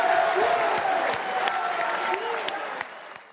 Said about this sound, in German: Der Jubel beim Team Bruckner bzw. den Anhängern war, wie man hört, relativ groß. Auch wahrscheinlich die Erleichterung, die dann abgefallen ist von allen Beteiligten.